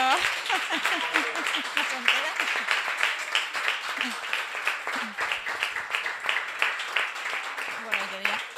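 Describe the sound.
An audience applauds steadily for several seconds, a dense wash of many overlapping claps at an even loudness, with voices calling out and talking underneath.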